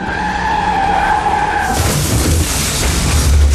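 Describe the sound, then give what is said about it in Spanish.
A car's tires screech in a sustained skid for almost two seconds as it leaves the road in a heavy snowstorm in the Pyrenees, then give way to a loud, rough burst of crunching, tumbling crash noise with heavy low thuds as the car overturns. “Un coche se sale de la carretera y vuelca.”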